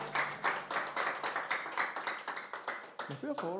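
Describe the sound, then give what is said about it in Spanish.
An audience applauds for the Lord, many hands clapping in a dense, fairly rhythmic patter at even loudness, with a brief voice rising at the very end. “fuerte aplauso para nuestro Señor, mis hermanos.”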